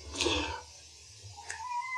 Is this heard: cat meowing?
yes